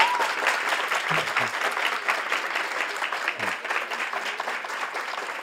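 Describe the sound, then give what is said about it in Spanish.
An audience applauds an author who came to sign books, a dense, continuous patter of many hands clapping at once that holds at an even level throughout, with no voices standing out. “O sea que yo creo que eh, se merece un aplauso.”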